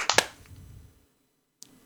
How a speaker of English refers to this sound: And then we'll do a clap sync in three, two, one.